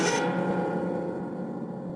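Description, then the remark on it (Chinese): A ceiling fan that has crashed down from the ceiling of a hall keeps spinning. Its blades scrape across the concrete floor in a loud, continuous grinding rasp, sharpest in the first moment and then a steady, harsh scraping with no voices. “吊扇扇叶还在独自转动着，在水泥地板上擦出一阵尖锐之极的声响”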